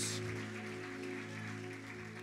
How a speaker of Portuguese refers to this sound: Pode aplaudir o Senhor, querido. Glória a Deus. Glória a Deus.